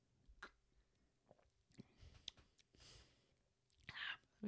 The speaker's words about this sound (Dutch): Zal ik hem nog even heel goed, goed proeven? Komt-ie hoor. Geen Voor de mensen met uh, misofonie, eh, sorry voor uh, ik wil hem wel... live proeven van deze port. Ik, wil hem je wel horen proeven.